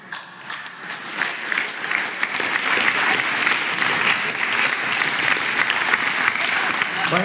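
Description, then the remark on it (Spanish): Steady audience applause, dense and continuous clapping from many hands building quickly and holding at a strong, even level for several seconds, called for on the International Day of Older Adults. “Un aplauso.”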